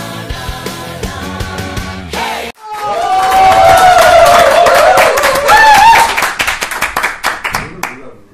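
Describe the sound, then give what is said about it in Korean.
A group at a celebration with food claps in loud, quick bursts while voices cheer and shout over it, the noise building for several seconds before tapering into scattered claps. “음식에 뭐, 정신이 팔리셔가지고 박수 치는 타이밍 못 맞추시네.”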